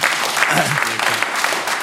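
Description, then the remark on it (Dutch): Steady audience applause for a panel of speakers being thanked, a dense wash of many hands clapping at an even loudness throughout, with a few faint voices mixed underneath. “We gaan voor het jaar applaus mag zeker.”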